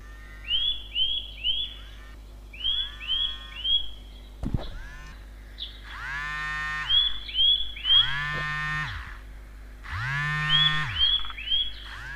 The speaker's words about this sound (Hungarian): Közben megnyomtam az OK gombot, hallottuk ugye a rezgést és a madár hangot, amit beállítottunk ébresztőnek.